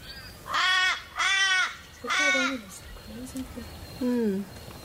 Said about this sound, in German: The ominous, the crows. Are they here for the sheep? Sie sind unheimlich, die Krähen.